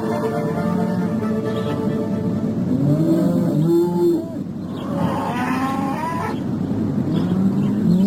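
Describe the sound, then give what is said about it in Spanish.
Cows on the Moya family farm low repeatedly in drawn-out, wavering moos as they are taken out, over a steady rumbling farm backdrop, several calls overlapping across the stretch with no talking. “Lo encontró cuando Juan salía con las vacas.”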